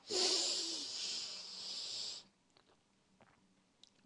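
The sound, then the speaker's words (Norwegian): A long, steady inhale through the nose during a relaxation breathing exercise, lasting about two seconds, breathy, followed by near silence with a few faint small clicks. “Pust godt inn med nesa.”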